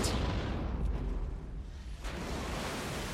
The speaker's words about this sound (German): So klingt es, wenn eine Bombe im Wasser explodiert.